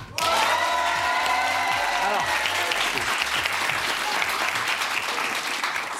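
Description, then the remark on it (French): Loud, dense applause on a TV show, as a guest is invited to applaud herself, starts abruptly and carries steadily for several seconds, a sustained crackle of many hands clapping at once with no pauses. “Non, c'est J'aime bien quand tu t'applaudis.”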